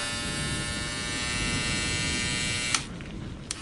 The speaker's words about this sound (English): She grabs an electric razor